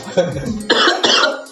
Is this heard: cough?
yes